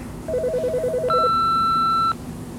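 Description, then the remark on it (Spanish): A hotel room telephone rings with a brief, rapidly warbling electronic trill while someone is bathing, and the room's answering machine comes on; a long steady high beep follows, over a low background hum with no one talking. “Mientras está bañando, suena el teléfono y entra la contestadora automática de su habitación de hotel.”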